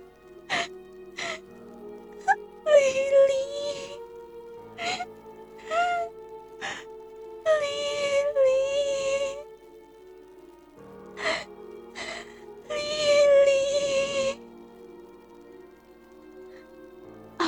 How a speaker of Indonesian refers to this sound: Aduh, suara tangisan itu. Suara tangisan itu terdengar lagi.